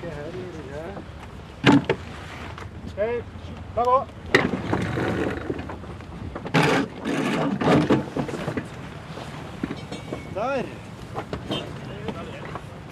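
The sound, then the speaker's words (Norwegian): A wooden sailboat under way with all sails set (jib, foresail, mainsail and mizzen), with steady wind and water rush around the hull and occasional louder whooshing bursts, while people talk briefly. “Ja, nå er det jo bra driv i båten her”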